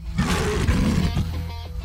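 A lion's roar, deep and rough, rumbles loudly for a couple of seconds as one sustained, gravelly growl that wavers in pitch before easing off. No one speaks.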